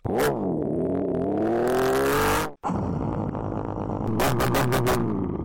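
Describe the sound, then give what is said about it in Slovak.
A voice imitates a revving petrol engine, a loud buzzing drone rising in pitch, then a brief break before a rougher, sputtering rev with a few sharp bursts near the end. “Verte tomu alebo nie, ale zvuky motora sú najťažšie.”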